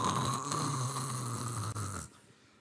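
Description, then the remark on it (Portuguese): A voice imitates someone snoring alongside a person who cannot sleep: a single long, rasping snore, fairly loud, lasting about two seconds before cutting off abruptly into near silence. “Tá roncando do lado lá.”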